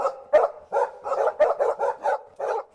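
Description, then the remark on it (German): A collie named Paul, the dog of trainer Rudd Weatherwax cast for an MGM film, barks in a quick, steady run of about nine sharp, fairly loud barks, with no voices or other sounds around it. “Fortan rennt, bellt und jault sich also”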